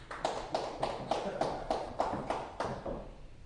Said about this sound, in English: All right, clap for this good looking guy right here.